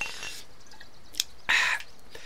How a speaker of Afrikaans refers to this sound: Ek skik nog 'n sap in.